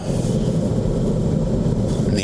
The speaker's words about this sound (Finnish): se aiheuttaa vähän turhaa kaasuttelua ja ehkä hiukan korkeampaa polttoaineen kulutusta, koska ne, ne vaan on niin hyvät äänet.